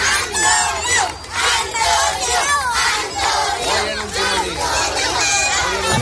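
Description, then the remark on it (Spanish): A large group of young schoolchildren from a school in the Santa Cruz neighbourhood of Seville, Spain, cheer and shout together on a Friday as a farewell to the local kiosk keeper, in loud, continuous waves of high voices, with rising whoops and calls sustained throughout. “esto que escuchas es la despedida eh, que le han dado este viernes los pequeños del Colegio San Isidoro.”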